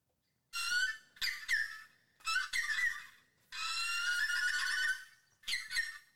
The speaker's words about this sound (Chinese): 屋子里没有传来熟悉的‘路上小心’，只听见外头的鸟儿吱吱啾啾的叫个不停。